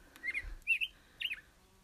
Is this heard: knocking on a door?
no